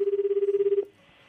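A telephone ringback tone on an outgoing call placed during a live radio show: a single steady, low-pitched buzzing ring with a fast warble lasts under a second, then cuts off into near quiet.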